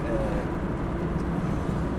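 A steady low rumble of street traffic fills the background, a continuous wash of engine noise with no distinct passing vehicles standing out.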